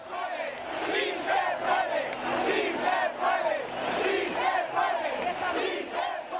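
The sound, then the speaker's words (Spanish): A large stadium crowd chants "sí se puede" in unison in support of the Mexico national team, the loud, massed voices rising and falling in a steady rhythm of repeated phrases, with no single voice standing out. “Y ese día, de la tribuna nació un grito que perduraría por mucho tiempo y que se exportaría a otros deportes, actos políticos y sociales.”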